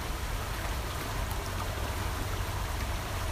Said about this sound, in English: This is the sound of the Los Gatos Creek